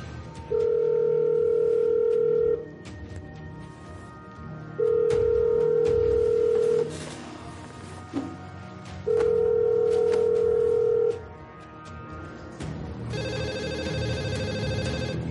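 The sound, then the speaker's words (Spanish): A telephone call placed from the factory rings unanswered at an empty command post in a hangar: three long, steady, low-pitched ring tones separated by pauses of equal length. A different tone rises at the very end. “Moscú descuelga el teléfono y llama.”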